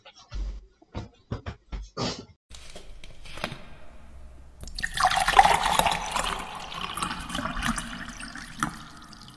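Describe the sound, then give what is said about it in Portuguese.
A few soft, evenly spaced gulping sounds of someone drinking water, then a steady rush of splashing, running water that continues to the end, with no talking. “O beber água já vem.”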